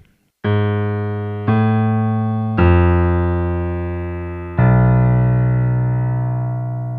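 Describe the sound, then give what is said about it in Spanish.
A short four-note dissonant theme on piano, played slowly and alone, each struck note ringing out and fading, the final note held longest. “Lo voy a tocar al piano y después vamos a escuchar la pieza”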